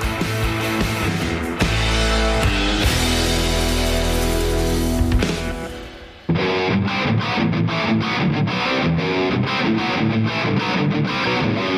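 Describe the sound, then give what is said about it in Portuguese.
A loud, distorted music intro jingle for a program plays on its own: a dense, sustained heavy section fades briefly, then a punchy, choppy rhythmic part with steady hits takes over to the end. “Essa vai ser a vinheta desse programa.”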